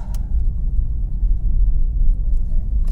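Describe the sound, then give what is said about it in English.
Steady, deep rumble from inside a car driving on a dry road on new snow tires, a constant low road and engine drone filling the whole stretch with only faint higher hiss on top and no one talking. “So anyway, I got these these new snow tires, and uh, I'm trying to get this car sideways here.”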